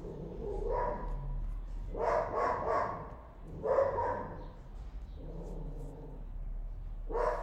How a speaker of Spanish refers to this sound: Es que ha pasado un gato y ahora, el perro está ladrando.